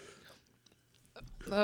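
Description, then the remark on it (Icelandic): Wet chewing from a woman eating, with soft lip smacks and small clicks over a couple of seconds, followed by a brief burst of voice at the end. “Ég hef aldrei tekið viðtalið konu sem er að borða”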